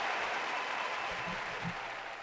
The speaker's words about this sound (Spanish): eso merece tremendo aplauso aquí. Mira, mira, es, que eso merece el aplauso aquí. ¡Otra! mira para allá. Standing ovation.